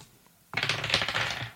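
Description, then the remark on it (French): Two players each roll a die; the dice clatter across a hard surface in a quick burst of rapid, bright clicks and rattles that lasts about a second after a moment of quiet. No one speaks. “Vous pouvez me lancer tous les deux un, petit day.”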